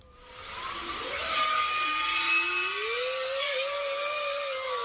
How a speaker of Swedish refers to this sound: Och det är också lite Norge för det handlar om eh, forskare som upptäckte en grupp valar som lever under havsisen norr om Svalbard. Och de sjunger som inga andra valar. Lyssna här.